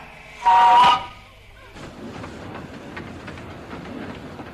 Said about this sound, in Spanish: Y ahora, pues, pues ahora tenemos a Gilbert Cooper viajando en un vagón de ferrocarril del itinerario noroeste.